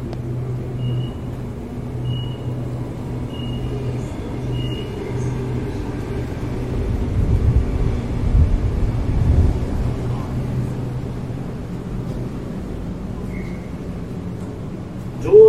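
A Sydney commuter train heading into the city, on the City Circle line via Town Hall, rumbles at station platform 3. Its low engine drone is steady, with a swelling roar midway, faint high tones above, and a sharp clunk right at the end as the doors close.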